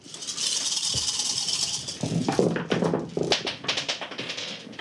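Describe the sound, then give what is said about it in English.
A steady hiss of handling noise, then a cluster of quick, sharp clicks and clatters as several dice are rolled in a tabletop game, tumbling and rattling across a hard surface, settling after a couple of seconds. “Okay, let's roll.”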